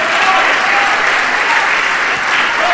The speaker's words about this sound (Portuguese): E vamos aplaudir o Senhor Jesus por essa grande colheita.